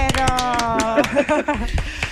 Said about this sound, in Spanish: Le damos un aplauso al alcalde.